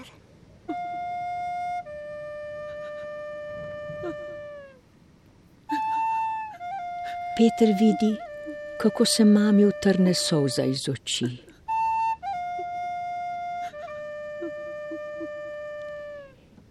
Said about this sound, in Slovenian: Zaigral ti bom lepo uspavan, ko mama. Sam sem si jo izmislil na melodijo, kakor si me poklicala,